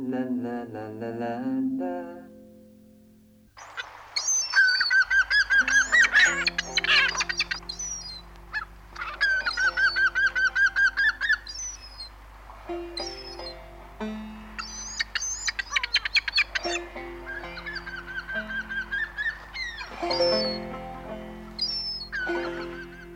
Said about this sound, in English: After this introduction, the seagull sound effects line up a little differently, with the stereo coming in just a hair sooner than the mono. We'll hear it first in stereo and then again in mono.